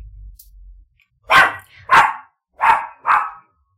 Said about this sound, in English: Y'all, would it be a sermon or something if we didn't have a dog barking in the background? That's my mighty Mo, my little five pound dog.